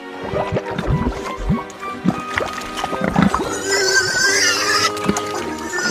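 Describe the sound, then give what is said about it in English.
A group of pigs grunts, snorts and squeals in a steady, messy jumble, with shriller squeals rising near the end as they jostle over food. “Watch it! Don't make, well, pigs of yourselves.”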